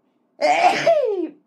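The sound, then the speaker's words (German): A single loud sneeze with a sharp burst followed by a falling, drawn-out tail, heard alone without any talking. “Gesundheit, geruht, Ruth Moschner.”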